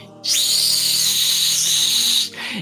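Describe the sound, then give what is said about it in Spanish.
A steady, bright hiss of a burning fuse lit by fire, leading to a large string of firecrackers in a cave, runs for about two seconds, loud, then cuts off abruptly, followed by a brief lower rustle. “Y entonces vemos cómo el fuego empieza a prender esa mecha.”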